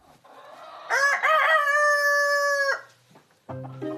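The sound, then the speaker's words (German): A rooster crows loudly in a chicken coop near Augsburg housing about 20 rare chicken breeds, one long harmonic cock-a-doodle-doo lasting about two seconds, followed by a brief pause and then the start of more clucking or crowing. “In einem Stall in der Nähe von Augsburg leben etwa 20 verschiedene seltene Hühnerrassen.”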